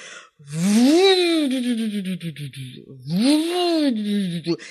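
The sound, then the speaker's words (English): A voice imitates the whirring of a fake toy drill in two long, buzzy bursts, each swelling up in pitch and then winding back down, loud. “It's a fake drill, and it does make a noise. It goes.”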